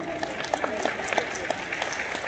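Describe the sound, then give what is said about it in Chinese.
A crowd applauds for the direct-selling company Aidomei (爱多美), with dense, steady clapping for a couple of seconds, many overlapping hand claps blending into a continuous rattle with occasional sharper claps popping out. “我越讲越兴奋，我们再给爱多美一个掌声。”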